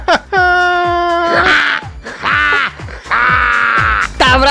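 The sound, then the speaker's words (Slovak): A person loudly imitates a crow, letting out about four drawn-out, raspy caws in quick succession, with no other sounds around. “Však to je vrana znie.”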